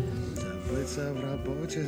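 Rap music with rhythmic vocals over a steady beat plays continuously from an Alice smart speaker at moderate volume, without pauses.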